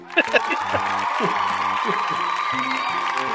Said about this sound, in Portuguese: Aplausos.